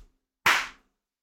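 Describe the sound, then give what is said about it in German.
A single sharp, fairly loud hand clap with a quick bright snap that fades over a fraction of a second in an otherwise silent moment. “Einmal klatschen.”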